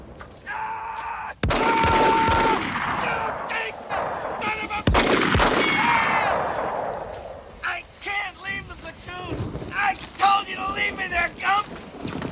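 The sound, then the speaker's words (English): Two sharp, loud bangs like explosions or heavy gunshots, each followed by a long rumbling roar, then a man shouting urgently over continued noise in a chaotic battle scene from the film Forrest Gump. “it involves some shooting and some explosions.”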